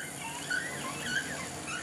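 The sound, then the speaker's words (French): A creaking whale call sliding from high to low, heard as two brief squeaky tones that stand out faintly from a steady underwater hiss. “On des aigus au grave un peu comme une porte qui grince.”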